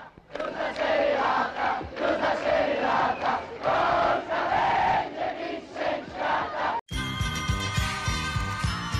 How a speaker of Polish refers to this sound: 12 lipca powrót naszej srebrnej jedenastki z Mundialu 82. Na Okęciu tłumy kibiców w oczekiwaniu na piłkarzy.